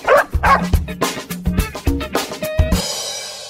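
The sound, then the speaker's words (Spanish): A dog named Hachi barks in a rapid, excited series of about eight loud yaps, then a brief hiss of background noise as the barking stops. “Qué bonito tu perro.”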